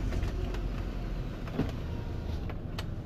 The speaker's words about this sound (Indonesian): gue mau tutup jendela suaranya masuk nih